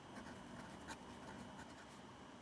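Soft, scratchy strokes of a pen moving across paper, repeating in short irregular bursts as something is written by hand. Faint and steady, with no talking.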